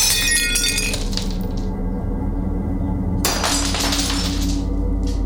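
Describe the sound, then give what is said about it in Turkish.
Plates fall from a kitchen counter and crash and shatter on a hard floor in two bursts, a bright clattering break at the start and another about three seconds later, with shards tinkling and settling between and after. “Tamirci bul, temizlik yap derken tezgahtaki tabaklar yere düşmeye başlamış.”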